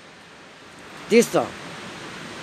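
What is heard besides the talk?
wind blowing outdoors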